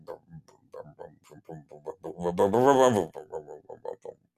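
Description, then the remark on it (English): A person vocally imitates a jet ski engine revving: choppy, sputtering mouth sounds build to a loud, sustained rising rev in the middle, then drop back to short, idling bursts. “Uh, but it it, it is going. Brum,”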